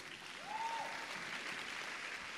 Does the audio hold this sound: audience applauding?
yes